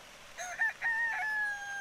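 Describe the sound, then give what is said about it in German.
A single rooster crows once, a bright, drawn-out cock-a-doodle-doo with a sustained final note, clear over quiet outdoor background, as it struts around in the Sustainable City. “Ein Hahn stolziert herum.”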